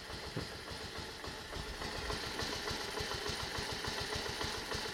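The engine of a small replica Honda Dax motorbike, not yet warmed up, idles steadily, its low, even putter pulsing in a regular rhythm without pause for the whole stretch.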